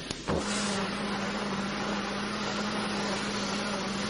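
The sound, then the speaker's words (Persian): A washing machine is switched on with a button to wash clothes: it starts up with a brief click, then settles into a loud, steady motor hum and whir that runs on evenly without voices. “حالا باست این کلید و فشار بدین تا ها شسته بشه”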